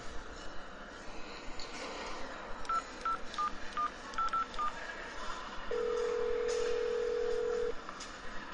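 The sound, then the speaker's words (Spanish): A phone number is dialed for a call from the show Busco mi serie: seven short, evenly spaced keypad tones, followed by a steady ringing tone, all over a low rumbling background with no voices. “te llamo de Busco mi serie.”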